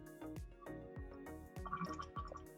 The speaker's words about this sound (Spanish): Por favor, está tomando agua